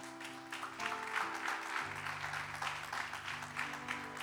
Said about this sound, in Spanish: Si tú le das un aplauso al Señor, yo te lo agradezco, yo tomo agua.